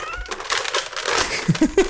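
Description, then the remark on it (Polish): A domestic cat gives a couple of short meows near the end, following a stretch of crinkly, rustling noise with no speech. “Ty bierzesz broń, mój kot przychodzi i wszyscy jesteśmy tak, szczęśliwi.”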